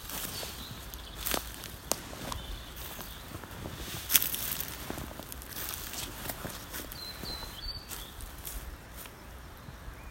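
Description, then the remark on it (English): Footsteps crunch over dry leaves while walking in Hazel Rowan Wood, irregular, with steady rustling underneath and a few sharper snaps along the way. No one speaks. “I think you can hear um, footsteps and a leaf rustling just walking along, recording mm.”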